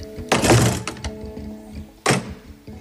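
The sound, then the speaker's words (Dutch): A door falls shut with a solid latch clunk as its automatic lock clicks, then a second, slightly quieter clunk follows about two seconds later over a faint steady hum. “Kinderen kunnen zich vrijer over afdelingen bewegen en de slaapkamerdeuren hebben niet langer die typische klik van de automatische vergrendeling die je hoort als de deur achter je in het slot valt.”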